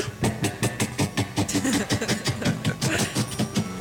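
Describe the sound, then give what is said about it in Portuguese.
A voice imitates a Harley motorcycle engine approaching, with a steady run of rhythmic chugging bursts that putter unevenly for several seconds. “O padre celebrando o casamento, vê um cabo daquelas motos Harley, sabe?”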